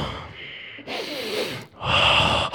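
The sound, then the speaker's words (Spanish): A deep, noisy breath drawn in sharply and then pushed out in a long, breathy exhale, followed by another forceful breath, as a relaxation breathing exercise, with no talking. “Relájense. Respiren profundo.”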